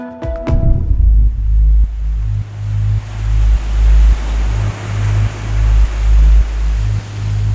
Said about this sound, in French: Cette fois-ci, il s'agit de plonger en mer. Il y a des vagues et du courant. L'eau salée tourbillonne dans les sinus.